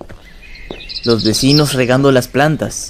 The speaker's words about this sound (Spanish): Es un hermoso día. A lo lejos se escuchan los pájaros cantar,